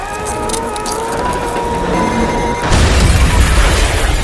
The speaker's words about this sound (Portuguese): Ele explode, cara, com uma puta que pariu, uma mega explosão.